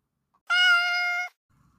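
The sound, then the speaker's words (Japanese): A single clear cat meow, fairly loud, holding a steady tone for nearly a second before cutting off, with silence around it. “2022年は数字の2がたくさんですから、にゃーにゃーにゃーにゃーにゃーにゃーで、スーパー猫の日だったそうですよ。”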